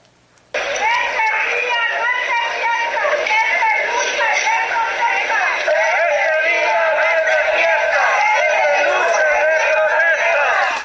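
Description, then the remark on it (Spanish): Hundreds of relatives, members of collectives and friends of disappeared people shout in unison while marching through the streets of Guanajuato capital in protest. Many voices chant loudly and continuously for about ten seconds, with rising and falling pitch and no single voice standing out. “Este grito fue expresado por centenares de familiares, integrantes de grupos colectivos y amigos de personas desaparecidas al realizar una marcha por diferentes calles de esta capital para protestar por el poco interés que tienen las autoridades”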